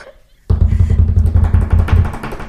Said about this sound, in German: Also zumal, naja, wir haben ja auch eine kleine Überraschung Trommelwirbel. für unsere Zuhörerschaft.